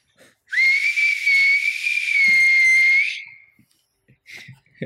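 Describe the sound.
A voice imitates the sound of passing through a wormhole, as described by Stephen Hawking, with a sustained, hissing whistle at a steady high pitch, held loud for about two and a half seconds before trailing off, followed by brief breathy sounds.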